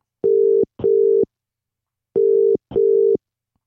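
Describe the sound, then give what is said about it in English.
A telephone ringback tone rings in two double bursts, each pair a quick brrr-brrr followed by a pause, heard clearly down the line with no one speaking. “No one knows that I'm calling them, by the way.”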